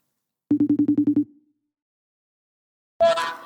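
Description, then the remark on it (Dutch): A telephone ringing tone heard on an outgoing call: one short burst of about eight rapid, buzzing electronic pulses, then silence before a louder, noisier sound starts at the end. “Dus ik zou zeggen, laten we hem bellen.”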